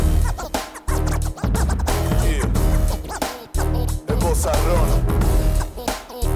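A loud hip-hop beat with heavy, booming bass and turntable scratching, chopped by brief abrupt dropouts, repeating in a steady rhythmic loop.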